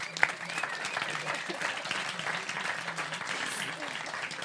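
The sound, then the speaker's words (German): An audience bursts into steady applause for the translator, many hands clapping in a dense, continuous patter that holds at an even level for several seconds, with faint voices mixed underneath. “Bitte an dieser Stelle einen riesen Applaus bitte für unseren Übersetzer.”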